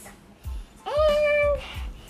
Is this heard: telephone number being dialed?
no